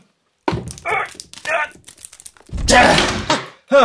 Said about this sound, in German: Okay, die Schräubchen sind raus. Jetzt muss ich nur versuchen, das Schloss. Das dauert meine Nerven. Ah, okay. Ich breche die Tür auf.